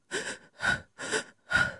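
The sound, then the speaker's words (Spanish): A voice imitates sobbing, the broken breaths of quiet, convulsive crying: four quick, ragged gasping breaths in a steady, convulsive rhythm, fairly soft, with no words. “Los sollozos son respiraciones entrecortadas, como espasmos de la respiración, típicas del llanto, del llanto callado y convulsivo.”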